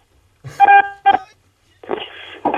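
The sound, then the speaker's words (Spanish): Choppy, distorted phone-line audio from a phone call breaking up: two harsh, buzzy tonal bursts, a short dropout, then loud crackly noise that cuts in and out, garbled. “se, te, se te rajó el teléfono.”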